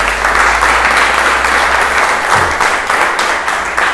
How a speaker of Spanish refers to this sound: Yo quiero que usted le dé un fuerte aplauso al Espíritu Santo.